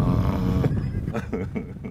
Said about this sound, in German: Der Hund, den Sie hier necken, heißt Juvi, ist drei Jahre alt und 47 Kilogramm schwer.